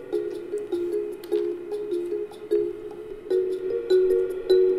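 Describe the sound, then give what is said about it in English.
Background music for a game in development, with a soft, airy flute-like tone holding steady notes, punctuated by light rhythmic accents every second or so, moderately loud with no voices. “What's like the background fluty noise?”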